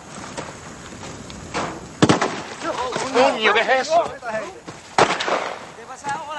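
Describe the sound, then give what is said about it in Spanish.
Two sharp, loud gunshots ring out about three seconds apart, with a couple of fainter cracks before them and people talking in between. The shots are fired by a military patrol. “Llega una patrulla militar que realiza disparos.”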